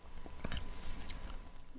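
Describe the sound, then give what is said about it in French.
Soft chewing of mushy, pasty kiwi fruit, with a few moist smacks and clicks over a quiet background and no talking. “Je pense qu'on est en train de manger des piwis.”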